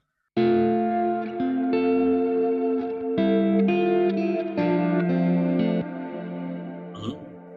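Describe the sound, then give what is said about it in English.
A reamped electric guitar signal, taken from the master stereo reamp source, plays sustained, effects-laden chords in stereo, thick with distortion, chorus and echo, changing every second or so before a final ringing tail fades out. “So um, when I uh, just want to have everything then I need to record or reamp source master stereo.”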